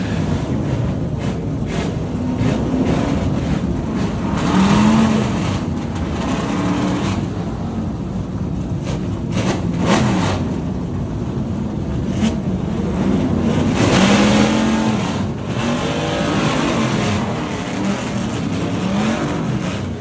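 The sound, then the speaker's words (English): A whole field of vintage race cars, lined up in the pit lane, starts up almost all at once as the track goes green in wet conditions: engines roar together in a dense, continuous rumble, with occasional revs rising above the wall of sound amid some wind buffeting. No one speaks. “And then track goes green, and all of a sudden, pretty much the entire field starts up at once.”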